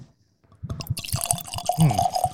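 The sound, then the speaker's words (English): Scotch whisky glugs and splashes as it's poured into a glass, a continuous gurgle whose pitch climbs as the glass fills, starting after a brief silence. “Need to watch while I pour.”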